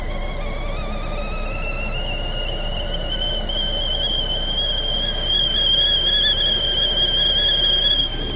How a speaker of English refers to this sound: That is the sound of the whistling kettle coming alive with a nice cup of Earl Grey tea, hot for me